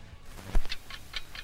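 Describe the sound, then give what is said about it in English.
A bomb timer ticking in a quick, steady rhythm, with several crisp ticks after a low thump, in a Batman scene where the bomb means trouble for Batman and Robin. It is fairly quiet, with no voices. “A ticking bomb means trouble Ooh.”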